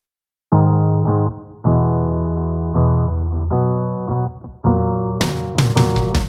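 Theme music for Couch Potato Diary with loud, buzzy sustained chords shifting every second or so, then crashing percussion bursting in over the last second. No one talks.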